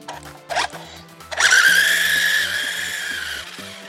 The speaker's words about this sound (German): Man kann anscheinend den Motor schneller einstellen.